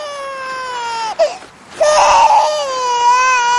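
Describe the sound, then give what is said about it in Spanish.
A small child, left lying on the grass, cries loudly and continuously in long, high-pitched wails, with a brief catch of breath in the middle before the sobbing resumes. “Lore toma a Peter en brazos y lo aparta dejándolo llorar sobre la hierba.”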